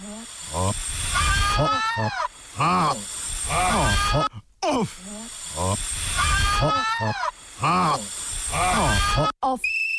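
A goat bleats loudly, a string of quavering, wavering cries in quick succession over a steady hissy background, with short gaps between bursts.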